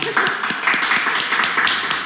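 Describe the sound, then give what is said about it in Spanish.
A short burst of steady applause: many hands clapping in a quick, dense patter that stays fairly loud throughout, with no voices over it. “Perfecto, bonita el aplauso, qué bonita.”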